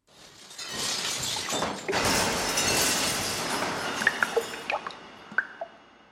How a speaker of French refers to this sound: Regardez, vous avez renversé votre verre d'eau. Il y a du verre cassé partout. Mon chemisier est tout trempé.